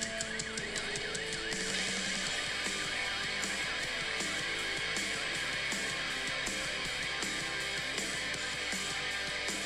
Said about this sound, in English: Oh, we got a uh, car alarm going off.